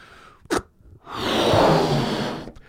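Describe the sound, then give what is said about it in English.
A quick sharp intake of breath, then a long steady breathy rush as air is blown into a balloon to blow it up, swelling and fading over about a second and a half, fairly loud, with no talking. “So, one of the things you'll observe is that you hear the friction sound of the air going into the balloon against air pressure.”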